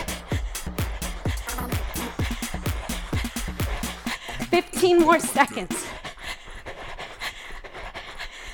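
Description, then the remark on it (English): Rapid, steady thumps of feet pounding a floor during fast knees-up in a one-minute timed workout interval, continuous, with heavy panting breaths and a brief spoken phrase over the rhythm. “You can hear my feet, yeah?”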